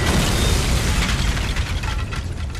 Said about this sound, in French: soudain, une explosion assourdissante retentit et projette en l'air violemment toute la terrasse sur plusieurs mètres en soufflant tout sur son passage.